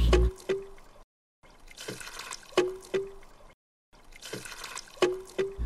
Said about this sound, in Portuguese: enquanto fica só aquele negocinho de, de água japonês, sabe? Que, tipo, enche o copinho de bambu e bate no chão. Poc.